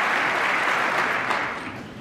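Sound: audience applause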